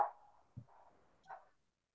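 A pet dog barks a few times, short muffled yelps spaced apart, quiet and with nothing else going on around them.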